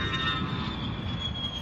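An airplane rumbles steadily overhead, a continuous low roar with a faint high whine running through it, moderately loud and unchanging, with no voices.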